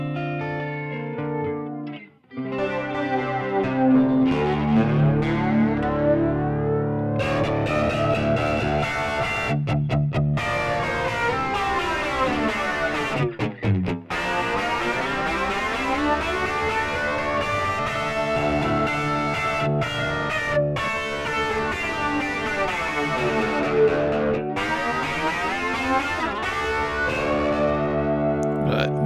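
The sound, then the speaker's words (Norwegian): A distorted electric guitar plays sustained chords through a flanger, its tone sweeping up and down in a whooshing jet-plane swirl that never settles. The playing is steady and loud, with brief breaks. “Men du har den derre jetfly-greia.”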